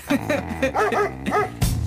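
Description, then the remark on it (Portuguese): A dog barks several times in quick, uneven bursts, loud and sharp, with yelping tones between, followed by a louder final bark, with no talking over it. “Eu disse pão e não cão.”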